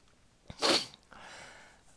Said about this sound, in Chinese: 又打嗝又擤鼻涕的，怎样？